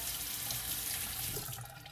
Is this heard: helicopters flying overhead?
no